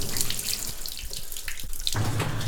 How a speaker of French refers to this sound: Tu vois, on voit l'eau. Hein. Quand je dis que c'est une rivière gelée, glacier, euh, il y a toujours de l'eau hein, qui coule euh, dans les glaciers.